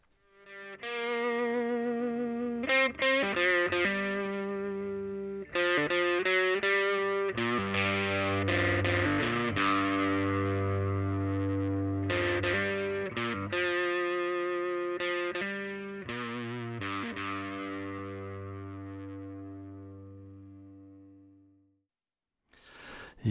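Heavy rock music driven by a loud, distorted electric guitar playing chunky riffs with abrupt stops and restarts, a thick sustained low end, and the sound fading out at the finish.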